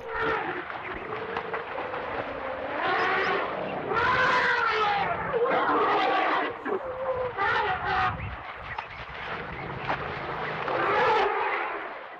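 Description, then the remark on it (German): An elephant trumpets in a series of loud, brassy blasts with wavering pitch, some honking and rasping, continuing for about twelve seconds with short breaks between calls. “Nach dem Wolf stellt sich nun das schwerste Säugetier der Welt mal gerade höchstpersönlich vor.”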